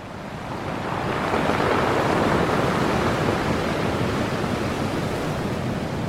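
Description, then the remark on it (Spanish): Steady roar of sea surf washing onto a shore at Manaure in La Guajira, on beaches dug into pools where salt settles, swelling in over the first second and then holding as a continuous, full rush of breaking waves with no voices. “Poncho vio por primera vez el mar y le tocó el mejor mar, uno cavado en las playas en formas de pozos donde se sedimentaba la sal.”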